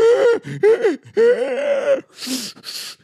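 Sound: imitated gasping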